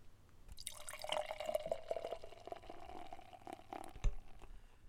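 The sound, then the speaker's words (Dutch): Chocolate ice cream stout pours steadily from a can into a glass for about four seconds, a bright, fizzy gurgling stream that rises in pitch as the glass fills, ending with a small clink. “En nu nog een glas vol, want laten we hem gaan inschenken.”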